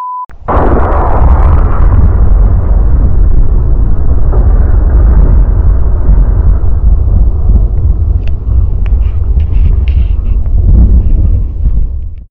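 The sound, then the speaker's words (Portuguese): A meteor explodes with a sudden sharp boom, followed by a deep, loud rumble that rolls on like thunder for several seconds before fading slightly. No voices. “Esse aqui é o som de um meteoro.”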